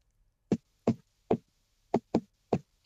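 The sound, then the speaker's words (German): Crisp knocks on a hard surface tapping out a rhythmic pattern, seven sharp raps with uneven spacing including a quick double knock, with no talking. “Dann komm, klopf gleich mal, bevor du ihn vergessen hast.”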